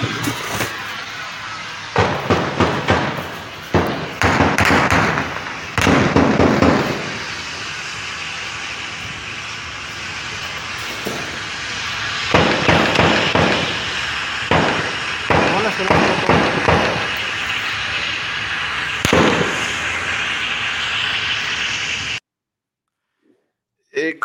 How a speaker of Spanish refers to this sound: Escucha las ráfagas de, de las armas de grueso calibre, se escucha, y más o menos así, hay videos que ustedes pueden ver en Cuarta Guerra de lo que pasó también ayer en Tepati.